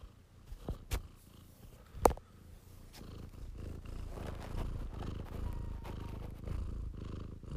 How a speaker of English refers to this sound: yeah, I don't know if you heard that, but that's her purring. Yeah, that's Spider the Cat, and it's interesting.